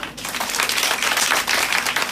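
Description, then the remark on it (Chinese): An audience at a talk bursts into steady, dense applause, many hands clapping at once in a continuous crackling wash that holds a fairly even loudness throughout, with no voices heard over it. “赚钱，好，掌声一下。”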